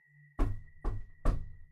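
Three heavy, evenly spaced knocks on a courtyard gate at night, each a deep thud that rings out briefly before the next, over a faint steady high-pitched tone and a low hum.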